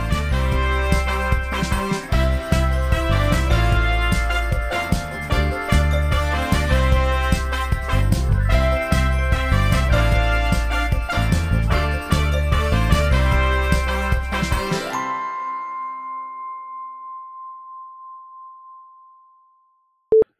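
Loud, full instrumental music with a steady driving beat plays for about fifteen seconds, then stops abruptly, leaving a single sustained tone that slowly fades before a brief click at the end.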